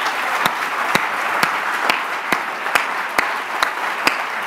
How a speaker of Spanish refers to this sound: Aleluya. Puede atribuir un aplauso fuerte al Señor.